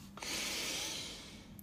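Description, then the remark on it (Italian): A single deep breath is taken as another deep breath in a guided exercise: a steady airy rush of air that swells quickly, holds for about a second, then fades. No one speaks. “E allora facciamo un altro respiro profondo e diciamolo un'altra volta.”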